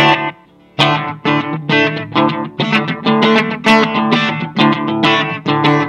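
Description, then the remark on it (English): An electric guitar plays distorted, sweeping chords through a Cube amp with a flanger effect, strummed in a steady rhythm of loud, ringing hits after a brief pause at the start. “Sounds like there's like a flanger on that too, like.”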